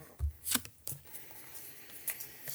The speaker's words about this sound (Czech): a teďka si lížu karty. A vzhledem tomu, že Ori je připravený, tak si můžu líznout dvě